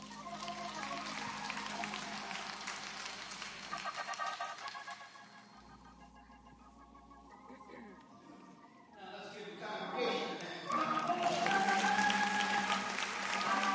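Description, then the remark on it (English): An audience claps for the choir in a dense, steady patter of many hands that dips midway, then swells louder toward the end as voices and a sustained tone rise over it. “give the choir a hand clap.”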